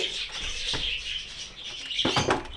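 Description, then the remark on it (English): A talking bird that also laughs chirps steadily in a busy, high-pitched twitter, moderately loud, with a few sharper squawk-like bursts near the end and no one speaking. “He's been very quiet this morning, um, and he's quite popular outside because he does laugh a lot. But he's not the friendliest of birds.”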